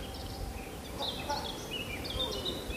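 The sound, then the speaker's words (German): Faint, high bird chirps come in a few short bursts over a soft, steady outdoor background hum in a forest. “da hustet jemand, ein Vogel zwitschert.”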